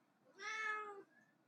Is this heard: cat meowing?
yes